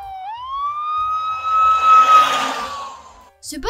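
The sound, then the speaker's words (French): A fire engine siren sounds one long, loud wail that swoops up quickly, holds steady, then slowly sinks away, followed by a brief burst of clattering noise. “Sur sirène de pompiers, ça”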